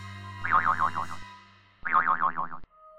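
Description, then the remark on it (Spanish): Two springy cartoon boings in a row, standing for a girl jumping on her bed, each a loud, wobbling twang that warbles up and down before cutting off, with a short pause between them and no voices. “La había escuchado saltar encima de su cama.”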